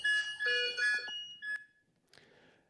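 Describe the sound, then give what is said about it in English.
Overlapping electronic alarm tones from hospital patient monitors in an ICU, attached to an intubated woman on a breathing machine, chime in quick succession for about a second and a half, then stop, leaving quiet with a faint click. “She was intubated, and uh, she was on a breathing machine, and all the monitors.”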